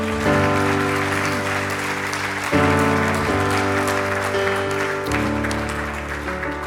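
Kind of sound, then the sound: crowd, audience clapping hands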